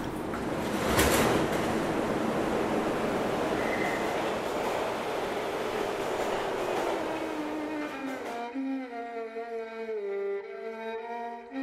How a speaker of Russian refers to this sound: Мне даже во снах этот Марокко снилось, как будто я сажусь в поезд в метро в Москве и выхожу на станции Марокко, серьезно. Осторожно, двери закрываются. Следующая станция – Марокко.